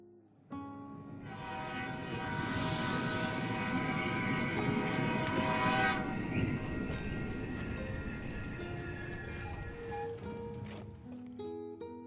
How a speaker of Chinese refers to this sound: 随着这一声拖长而又厚重的汽笛声，一条十多节满载着乘客的列车缓缓地驶进了车站的站台。